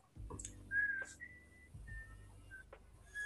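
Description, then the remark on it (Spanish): A person whistles a short four-note tune, the mockingjay tune, the clear tones rising and holding briefly, fairly quiet, with some low background noise and no talking. “No, es que no puedo silbar muy bien, la verdad.”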